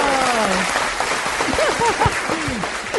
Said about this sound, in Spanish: Recibamos con un fuerte aplauso a Margarita Ortega. ¡Bravo!